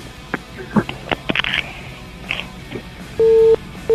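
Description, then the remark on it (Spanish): A phone call from abroad cuts off, ending in a single loud, steady electronic beep of the line tone, preceded by scattered clicks and crackly handset noise. “era del extranjero, ¿verdad? Parece, parece, se le cortó.”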